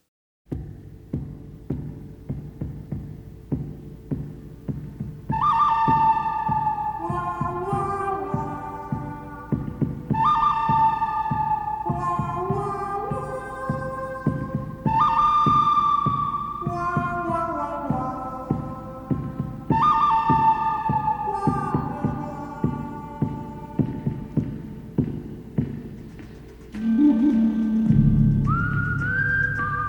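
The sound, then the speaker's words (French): Western film theme music with a steady throbbing beat and a whistled-sounding melodic phrase imitating a coyote's cry, its high notes following quickly and repeating every few seconds, ending in a deeper swelling chord. No voices. “je vous propose d'écouter un extrait du thème iconique du bon, de la brute et du truand”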